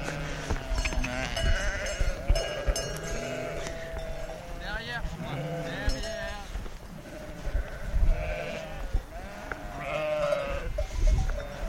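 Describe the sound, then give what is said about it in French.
A flock of sheep and ewes bleats continuously, many overlapping calls, as the animals move into their pen, herded by three dogs; faint bell clinks and shuffling mix in with the steady chorus. “Alors tous les moutons sont en train de rentrer dans leur enclos avec un travail de précision des chiens absolument incroyable.”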